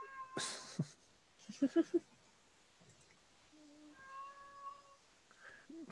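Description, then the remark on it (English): A pet cat meows several times, a quick cluster of short calls followed by longer, drawn-out mews, clear against a quiet background with a few soft clicks and rustles. “Sorry, folks, you might be hearing my cat.”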